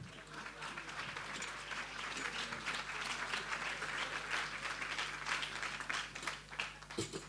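A crowd applauds steadily for several seconds, a dense wash of many hands clapping at once with a constant low hum beneath.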